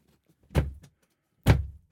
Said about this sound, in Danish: Altid, altid problemer med at, at lukke døren her. Den her dør, den bliver altså værre og værre.